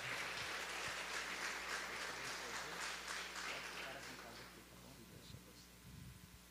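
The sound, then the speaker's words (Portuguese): A church audience in Roraima breaks into sustained applause to welcome a visiting pastor at a Monday evening service. A dense wash of many hands clapping holds steady for several seconds, then thins and fades out, with a low hum and faint voices underneath. “Por favor, uma salva de palmas ao nome do Senhor para o pastor.”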